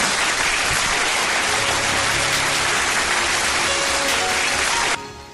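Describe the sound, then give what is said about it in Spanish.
Dense, steady applause from a crowd for a nominee, a loud continuous wash of clapping that holds for about five seconds before dropping away abruptly at the end. “Ahí nominada también mi Tony su merecido aplauso, por supuesto.”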